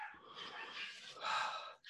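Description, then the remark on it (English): Faint, muffled barking from dogs three rooms away, a continuous rough yapping with no clear gaps, thin rather than close. “I apologize for, for the dogs barking three rooms away.”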